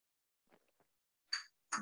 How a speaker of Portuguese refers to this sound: É o, é o tintim com café mais simbólico que a gente já fez. Pois é, o meu vai é com um aqui também, que é mais velhinho, eu tenho um. então tá bom, tintim para vocês. Tintim. Tintim.